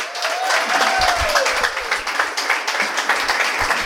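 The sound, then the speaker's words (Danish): A studio audience bursts into steady, sustained applause to welcome a guest, the leader of a moped gang, on a Danish show. Dense clapping fills the room for several seconds, with a brief whistle or cheer rising over the noise. “Men der må jeg give en stor hånd til en leder af en knallertbande.”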